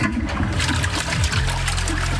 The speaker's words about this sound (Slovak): Aj ja pravidelne monitorujem, vždy keď spláchnem, monitorujem, či stačí raz, alebo treba dvakrát.